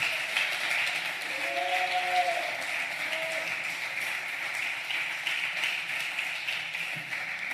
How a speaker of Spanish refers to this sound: Dale un aplauso al Señor en esta noche.